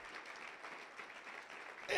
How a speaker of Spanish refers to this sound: un aplauso a Dios.